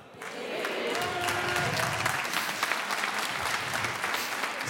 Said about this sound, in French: Il n'y a vraiment que les meufs qui applaudissent, c'est marrant.